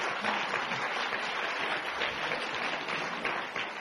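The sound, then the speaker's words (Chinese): A crowd of about three hundred people claps for three of them, a dense, even wash of applause that holds at the same loudness throughout with no voices breaking through. “朋友们，看看整个房间，三百个人当中有三个人做对了，为他们三个人鼓掌。”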